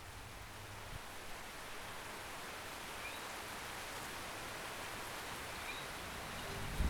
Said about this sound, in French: Ça a commencé avec des grenouilles. Le chant d'une grenouille et la pluie qui tombe.